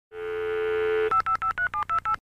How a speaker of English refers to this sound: That's kind of where it all started for me, and and and I was really deep into the bulletin board system uh, thing where you you actually just put up a modem and just dialed.